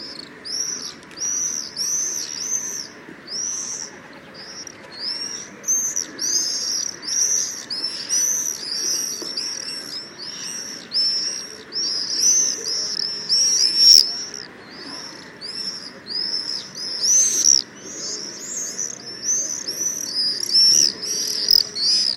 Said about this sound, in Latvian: Un, un, un arī tipiskā balss, eh, viņas eh, lidojot ātri, Un, kā es teicu, parasti bariņos eh, lido, tad izdod tādus skaļus, specifiskus svīru, svīru.